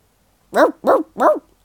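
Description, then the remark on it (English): A dog barks three times in quick, evenly spaced succession, each bark loud and sharp, with silence before and no voices. “There was another dog staring up at him and he had a big juicy bone in his mouth, too.”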